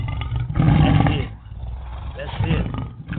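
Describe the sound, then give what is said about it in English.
Several people at a Christian gathering roar together like lions, loud, in two rough surges with a brief dip between them, their voices growling and rumbling. “Roar for your power. Roar for your power. Come on.”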